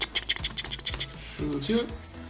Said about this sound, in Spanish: Van a escuchar el teclado.